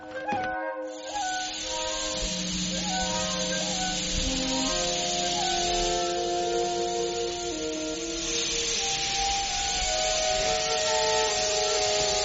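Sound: steam train hissing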